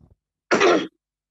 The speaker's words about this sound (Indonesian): lu batuk mulu lu kena corona ya anjing takut gak? Enggak anjing. gue emang emang lagi gak enak badan dari kemarin bangsat.